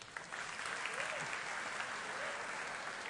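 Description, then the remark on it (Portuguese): Sustained applause from an audience for volunteers who came up on stage, a dense, steady patter of many hands clapping at even loudness for the whole stretch, with faint murmurs mixed in. “Gente, uma salva de palmas para eles, por favor.”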